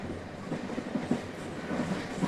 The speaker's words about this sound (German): Der Zug bog in eine Kurve, sie mussten auf der Höhe von Zons sein, jetzt war es nicht mehr weit.